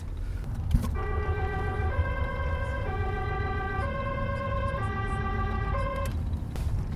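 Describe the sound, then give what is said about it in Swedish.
A two-tone ambulance siren sounding loudly outside alternates steadily between high and low pitches, heard muffled from inside a well sound-insulated Volvo V70, over a constant low engine and road rumble. “Och så låter det alltså inuti en Volvo V70 när det tutar ganska rejält utifrån.”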